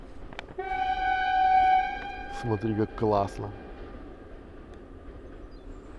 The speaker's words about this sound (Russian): поезд, а?